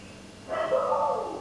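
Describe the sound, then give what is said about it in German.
A dog barking to be let in lets out a single drawn-out bark that slides into a whine, clear against a quiet background, lasting just under a second. “jetzt Schluss zu machen, damit meine Hunde reinkommen.”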